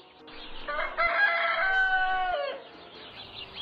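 A single loud rooster crow rings out, a long harmonic cock-a-doodle-doo lasting a couple of seconds before trailing off, with no voices present.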